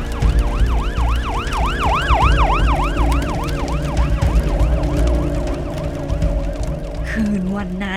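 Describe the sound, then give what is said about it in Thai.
Fire truck and ambulance sirens wail loudly and continuously as fire rages through a village, their rising and falling tones overlapping, with a low engine rumble beneath them and no one speaking. “ลุกโชนโหมกระหน่ำทั่วหมู่บ้าน เสียงรถดับเพลิงกับรถพยาบาลดังสนั่น ท่ามกลางเสียงคนมากมาย”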